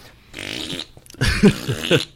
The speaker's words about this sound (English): i mean even even the toys themselves you have two ways you can activate fart mode